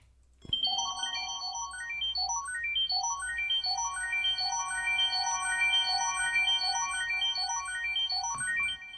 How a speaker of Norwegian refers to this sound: Og der kommer jeg også på at vi skal skru ned lyden på den der, der jingeren der, for den er ganske skjærende. Den skriker alltid i øret. I hvert fall det høyre.